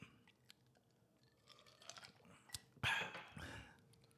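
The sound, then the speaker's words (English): Wet mouth sounds of someone gulping down water: soft clicks and small swallows build to a louder cluster of gulps toward the end, with no talking. “This water is so refreshing. You crushed that water, I'm not gonna lie.”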